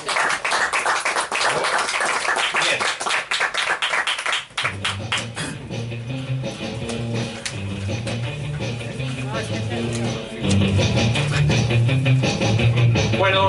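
A crowd breaks into loud, dense applause for an arriving actress, lasting several seconds, then music starts up and the clapping carries on more faintly beneath it.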